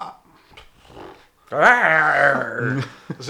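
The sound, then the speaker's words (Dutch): A voice imitates the Iron Gwazi roller coaster at Busch Gardens, a double GCI track converted to a single RMC track, roaring along its track: a loud, sustained, throaty growl of about a second and a half, wavering in pitch, after some quiet mumbling. “zo klinkt het beest, Iron eh, Gwazi, van Busch Gardens”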